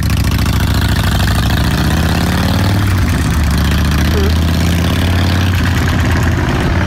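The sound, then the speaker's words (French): A Harley motorcycle engine idles with a loud, deep, steady throb of low, uneven pulses; a voice briefly murmurs over the rumble. “je respecte toutes les gens qui ont une moto, mais un Harley, j'ai l'impression que c'est comme un son où après, après une coupe d'heure, j'aurais mal à la tête.”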